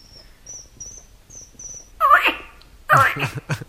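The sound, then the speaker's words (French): A voice imitates a midwife toad's call as heard in October with four short, pure whistled notes, evenly spaced and fairly soft. Two loud, breathy, noisy bursts follow. “Le crapaud accoucheur en mois d'octobre.”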